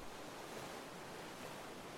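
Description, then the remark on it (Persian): A steady, continuous wash of ocean surf with waves breaking on a sandy beach, a broad hissing roar that stays even and fairly loud throughout, with no voices. “بیا روی ماسا قدم بزنیم لب ساحل با ساحل قدم میزنم”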